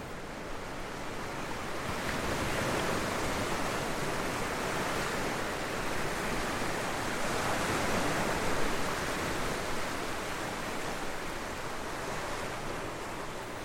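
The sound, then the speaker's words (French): Steady ocean surf at Essaouira, Morocco, rolls and hisses continuously, a broad roar of breaking waves with a gentle swell around the middle, no voices present. “Dès que tu ouvres les yeux encore collés par le sable, tu as l'impression de te trouver au milieu des vagues immobile dans ton lit, tu flottes sur un voile d'écume nacrée.”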